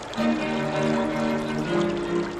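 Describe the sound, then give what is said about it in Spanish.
Steady rushing river water flows continuously at moderate volume, a full, bubbling wash with a faintly tonal gurgle running through it, with no voices present. “Escruta con sus ojos las aguas, busca la herramienta en el fondo del río”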